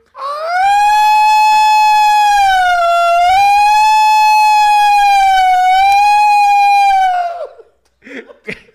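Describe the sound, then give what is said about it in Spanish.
A loud quarantine alarm siren with about seven horns swells up and holds a steady, slightly wavering wail for about seven seconds, then cuts off, leaving a few faint, brief noises afterward. “Y para motivos eh, lúdicos y eficientes para la transferencia, activamos la alarma de cuarentena eh, que se efectuará en estos momentos.”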